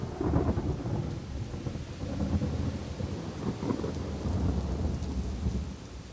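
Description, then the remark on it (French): A steady thunderstorm: heavy rain pours continuously while deep rumbling thunder rolls underneath, swelling and easing over several seconds with no voices present. “Une nuit, il y eut une tempête terrible.”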